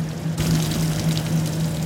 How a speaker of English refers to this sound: These are the sounds of huge fans moving air while flowing liquids absorb carbon dioxide. So you can actually hear, it kind of sounds like a waterfall.